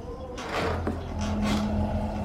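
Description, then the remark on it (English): Wooden floorboards groan and rub under a person's weight in a drawn-out creak lasting a couple of seconds, with a low steady hum underneath and faint scraping textures, moderately loud. “These boards are going to expand and rub against each other.”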